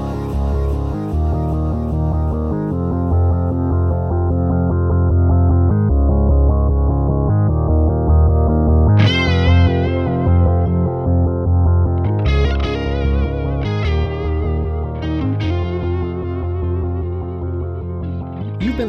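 Loud, driving theme music with heavily distorted, effects-laden guitar over a steady throbbing low end, brightening with sharper high bursts in the second half. No voices.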